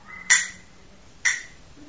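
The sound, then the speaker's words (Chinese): Two sharp, bright wooden clicks from small castanets during a children's music lesson, spaced about a second apart like the slow tick of a clock, each snapping and fading quickly over a quiet background. “这个小响板就像那个 大 钟声， 小路哒啦啦， 就像那个钟声滴答滴答，”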